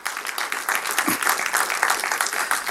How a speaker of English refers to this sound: Oh, round of applause for this couple, right? How many years? How many? 50 years married.